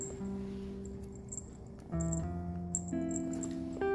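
A small bell on a young pet, about two months old and nearly all black with a white line across its belly, jingles at someone's feet in faint, scattered tinkles over a steady low electrical hum, with a slight shifting patter in between; nobody speaks.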